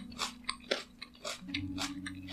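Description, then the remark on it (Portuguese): Crisp crunching as someone bites into a raw carrot, wiped of soil, and chews, with several sharp snaps followed by steady rhythmic mastication, no talking. “Eu já dou uma mordida numa cenoura.”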